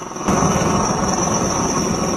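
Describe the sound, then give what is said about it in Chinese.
A helicopter landing during field landing training, touching down on a 15-by-15-metre clearing: a loud, steady rotor roar thrums with a rapid low chopping texture and a thin high whine, swelling abruptly after a brief quieter opening and holding constant, with no voices. “野外场地起降要求直升机准确降落在十五乘十五米的空地上，飞行员需要准确判断风向与风速，不断调整直升机飞行姿态，建立正确的下滑航线，才能精准着陆。”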